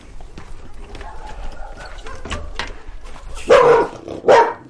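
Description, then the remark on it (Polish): A dog lets out two loud barks in quick succession near the end, following a stretch of quieter background noise. “Pieski, uspokój się”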